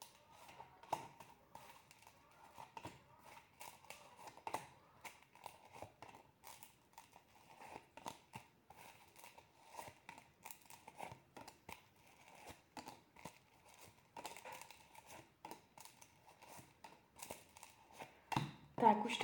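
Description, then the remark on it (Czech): Tarot cards being shuffled, drawn and handled for a reading: a steady stream of soft, papery flicks, slides and taps, irregular and fairly quiet, with a slightly louder rustle right at the end. “Tak moment, už tahám karty.”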